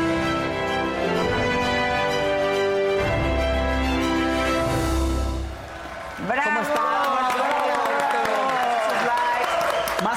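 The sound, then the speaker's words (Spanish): A crowd shouts and cheers loudly and continuously, with a dense roar of voices that dips briefly midway, then surges back with excited, rising yells and whoops. “Y que se oigan los gritos, está padrísimo.”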